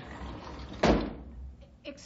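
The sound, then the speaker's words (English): A door opens with a single solid thud, its broad knock fading over about half a second against a low hum, followed by faint indistinct voices. “Excuse me, the door was open. May I come in?”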